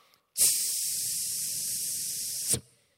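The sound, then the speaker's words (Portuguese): A pressure cooker valve releases steam in one steady, loud hiss lasting about two seconds, starting and stopping abruptly, with no voices. “Pega a tampinha da panela de pressão, a válvulazinha, ó.”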